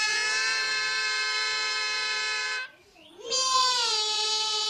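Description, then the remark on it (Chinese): Two children sing the Goat Song in two vocal parts, long, bright, nasal held tones imitating a goat's bleat, breaking off briefly midway before sliding back up into another sustained bleat. “山羊歌，所以他们唱起来的时候会模仿山羊的咩的叫声，是吗？”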